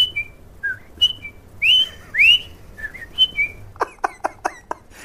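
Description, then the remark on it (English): A person whistles a series of short, bird-like warbling phrases with rising and falling swoops, mimicking blackbird song, clear, followed by a quick burst of sharp clicking chatter. “think you know those conversations with the blackbirds yeah. and the whistling.”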